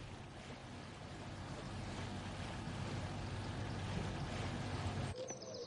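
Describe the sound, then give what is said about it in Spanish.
A motorboat drones steadily through the canals of Venice by day, carrying a man with a bouquet of flowers, its low engine hum layered with a constant rushing wash of spray, loud before cutting off abruptly near the end. “De día, Fred va con un ramo de flores en una lancha motorizada.”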